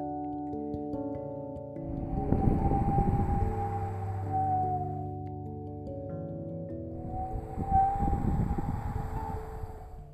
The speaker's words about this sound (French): les volets claquèrent et le bruit du vent qui souffle fort retentit dans la chambre.